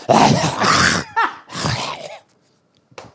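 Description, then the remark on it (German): A voice fakes an exaggerated coughing fit on the telephone to call in sick, with two loud, harsh, drawn-out coughs followed by a softer rasping one, ending in a brief sharp catch after a pause. “Ist das ein Hustanfall oder was ist das?”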